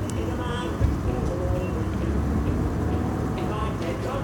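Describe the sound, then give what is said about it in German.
Steady, low road and engine rumble inside a moving car, a continuous muffled drone at an even level, with faint voices murmuring beneath it. “Wo sind wir denn hier? In einem Auto.”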